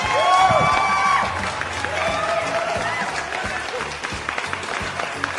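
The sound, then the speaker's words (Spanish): A crowd of fans applauds and cheers loudly for a singer, with dense clapping and scattered whoops and shouts rising above it, steady throughout, with some indistinct voices mixed in. “todos estos aplausos que fans son para ti.”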